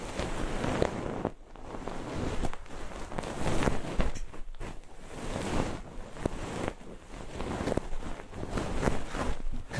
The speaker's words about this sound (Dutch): Ik ga het nu irritanter maken. Dit is het geluid van een wattenstaafje in je oren.